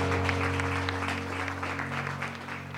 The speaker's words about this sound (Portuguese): Aplauda ao Senhor. Glória a Deus.